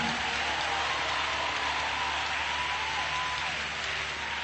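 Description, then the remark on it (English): Sustained applause from an audience, a dense, steady wash of many hands clapping at once with no pauses, bright and noisy across the whole clip. “Come on, the, the harder you clap, the closer your breakthrough.”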